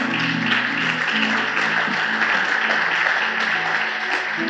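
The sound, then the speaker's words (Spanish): A church audience applauds the Lord loudly and steadily for several seconds at the close of a Spanish-language sermon, a dense wash of clapping over low, sustained musical chords that shift slightly beneath it. “¿Por qué no das un fuerte aplauso al Señor?”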